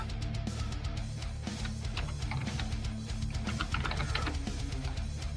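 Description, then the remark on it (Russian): Slow, irregular clicking of keys on a computer keyboard as someone types very slowly to look something up on the internet, with uneven pauses between taps over a steady low background hum; no one speaks. “Печатаю я очень медленно.”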